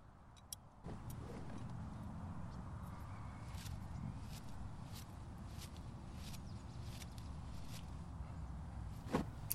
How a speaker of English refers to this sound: You can hear that in this recording the series of scissor cuts as I gather a large handful